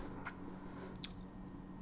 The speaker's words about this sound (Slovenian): Kaj za tiste, ki ne gledate videa, te moje mm, pauze so, ker pijem kavo, da ne bo čuden zgled.